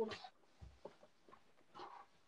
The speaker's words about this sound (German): mir ist der Controller gerade runtergefallen, Alter, wenn das meine Mutter gehört hat.